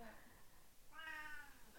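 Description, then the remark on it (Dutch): A cat meows once, a drawn-out, rising and wavering cry, clear, with faint room noise around it and no talking. “ja, de kat komt er tussendoor.”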